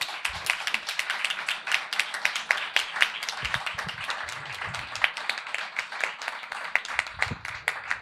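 A crowd applauds steadily for several seconds, dense overlapping claps forming a continuous crackle, with a few faint voices murmuring underneath.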